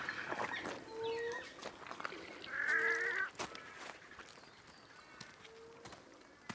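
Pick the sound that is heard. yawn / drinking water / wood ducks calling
wood ducks calling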